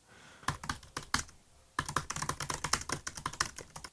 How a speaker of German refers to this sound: Also, hörst du, was ich hier geschrieben habe auf meinem Laptop? Wir sitzen nicht im selben Studio zur Erklärung, aber du hast wahrscheinlich nicht gedacht, was ich da schreibe.